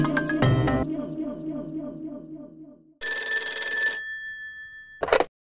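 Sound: telephone ringing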